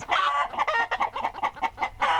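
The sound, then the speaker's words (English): A flock of chickens clucking as they peck, a busy run of short, squawky bursts in quick succession with a louder cackle at the start and end, no talking. “Suddenly, the chickens pecked at Minnie and Moo.”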